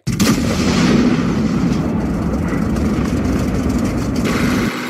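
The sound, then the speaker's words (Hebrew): A tank cannon fires a shell at a target at a range of 2470 with a sudden, powerful boom, followed by a long, loud, low rumble that rolls on for several seconds before cutting off. No voices are heard. “הפגז מוכן בקנה, נווה מאחורי מבט. אש! יורה!”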